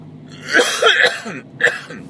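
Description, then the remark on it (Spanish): A person with a lingering cough lets out a loud burst of coughing, two or three harsh coughs in quick succession, a short pause, then one more cough, with no talking. “Bueno, como veis sigo con la tos.”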